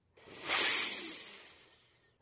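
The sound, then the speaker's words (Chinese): A snake's hiss: one long, airy, high-pitched rush of noise that swells quickly, then slowly fades out over about two seconds, with no voices. “那是什么动物的声音？”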